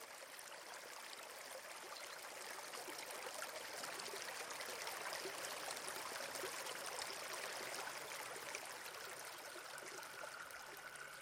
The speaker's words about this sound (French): Rien qu'un bruit d'eau et le silence.